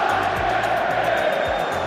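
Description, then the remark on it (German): A stadium crowd of football fans in Munich chants "Scheiß DFB" in an angry, dense roar against the video assistant referee, staying steady and loud throughout, with low thumping rumbles underneath. “Die Fans schreien Scheiß DFB, aber sie meinen Scheiß Videobeweis.”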